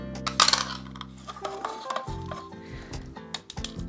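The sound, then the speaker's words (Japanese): A sharp metallic pop early on, then a string of small clicks and scraping as a full-top pull-tab tuna can is peeled open to add to cold miso soup, with a steady low hum in the background. “サバ缶なんかでもいいですねサバの水煮缶でもいいですしツナ缶でもいいですさあじゃあツナ缶開けますね”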